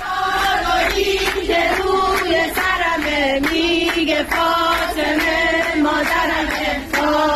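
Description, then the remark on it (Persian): A group of Basij women who have taken over a metro carriage sings an anthem in praise of compulsory hijab together in unison, loud, with a steady rhythmic beat and the rumble of the moving train underneath. “خواهرای بسیجی جمع شدن توی واگن مترو و اونجا دربست گرفتن واگن و همه با هم سرودی در مده هجاب اجباری خوندن گوش بدین گروه سرود فاطمه کماندوهای مترو سوار الان که تقدیم میکند”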